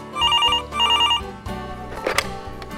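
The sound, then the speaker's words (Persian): A telephone rings twice in quick trilling bursts as an incoming call arrives from Detroit, each ring a rapid warbling pulse, followed by a brief clatter like the handset being picked up, with low background noise throughout. “همون لحظه من کنار تلفن نشسته بودم و انتظار میکشیدم که آقای واشنگتن از دیترویت با هم تماس گرفت”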